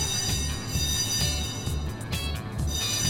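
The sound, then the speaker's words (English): A loud school fire alarm bell rings continuously during a winter fire drill, with a harsh metallic clatter, steady and unbroken for the whole stretch, with no voices over it. “Okay, that's the fire alarm.”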